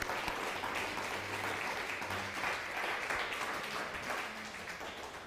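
Sustained applause from a crowd, a dense steady wash of clapping that stays loud and even for several seconds with no voices over it.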